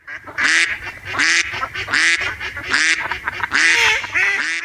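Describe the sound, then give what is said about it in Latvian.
Ducks quack loudly, a busy overlapping chorus of harsh, nasal calls in quick uneven bursts, with no one speaking. “pareizi tās bija pīles.”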